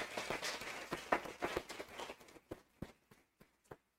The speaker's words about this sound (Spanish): Señoras y señores, Samuel García, un fuerte aplauso, por favor.